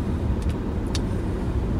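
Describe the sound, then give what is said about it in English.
Steady low rumble of road noise inside a moving used minivan, with a couple of faint brief ticks over the constant drone and no one speaking. “I got this little handy phone holder for my dashboard”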